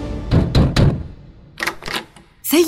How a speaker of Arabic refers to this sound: وجاء من يقرع باب المكتب بسرعه